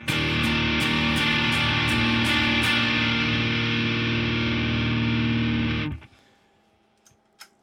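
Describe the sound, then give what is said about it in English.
A loud, heavily distorted electric guitar chord roars through a Noble Screamer overdrive pedal set to maximum volume, sustaining densely for about six seconds before cutting off abruptly, followed by a few faint clicks and quiet handling noise. “The uh, Noble Screamer at max volume sounds like that.”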